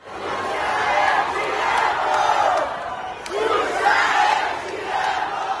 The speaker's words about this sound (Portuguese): esse Xuxa Eu Te Amo, eufórico, saiu da boca de uma multidão que estava na Bienal em São Paulo